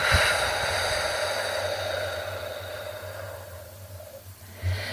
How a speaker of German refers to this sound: Und dann durch den leicht geöffneten Mund wieder ausströmen kann. Also einatmen durch die Nase und ausatmen durch den Mund.